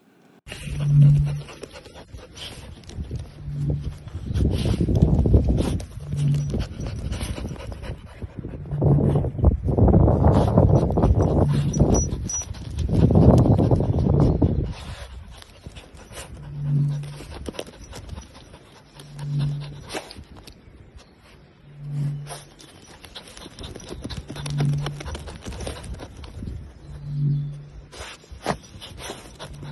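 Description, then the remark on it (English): Two excited dogs dig and scratch in loose bursts of rough scraping with excited panting, while wind gusts across the microphone and a low, steady throbbing hum pulses underneath every couple of seconds. “What you can also hear are the two dogs digging and the wind blowing.”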